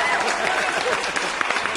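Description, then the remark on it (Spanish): A short burst of steady applause, many hands clapping densely and evenly throughout, with some voices faintly mixed in beneath the noise. “aplausos, maldita sea.”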